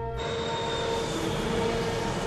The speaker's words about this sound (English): We are not leaving until there's a plane takes off in the background.